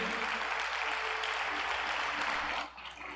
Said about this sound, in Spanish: Póngase de pie. Dele un aplauso a Dios si lo quiere hacer. Apláudale a Él.